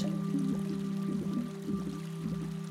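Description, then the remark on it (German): River water burbles and trickles steadily at a moderate level over a sustained low humming drone, with little bubbling bursts scattered throughout and no voices. “Jetzt stelle dir vor, dass du mit all den anderen Fischen flussabwärts in Richtung Wasserfall schwimmst und dich von der Strömung tragen lässt.”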